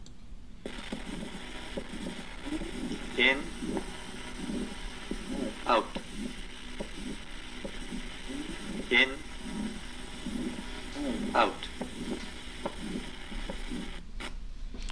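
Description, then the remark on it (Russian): A pulmonary valve stenosis heart murmur: steady, low heartbeats with a rough whooshing murmur between them, heard through a stethoscope. A few sharp clicks stand out, and a voice gives brief cues. “Шум при стенозе клапана легочной артерии.”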